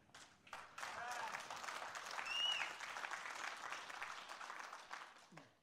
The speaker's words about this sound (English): Amen. Don't give a golf clap.